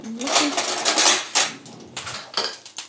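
Metal pan and utensils clatter and scrape, a run of clinks and knocks with a steady sizzling hiss underneath, as quartered Brussels sprouts cook in a pan of hot oil.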